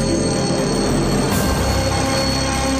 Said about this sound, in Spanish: Al sonar el despertador,